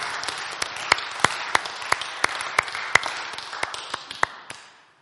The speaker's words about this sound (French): mais est-ce que ça te dit on applaudit Jésus pour tout ce qu'il fait dans ta vie Amen Trop bien.